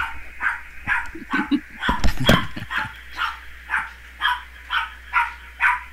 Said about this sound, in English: Dog, shut up.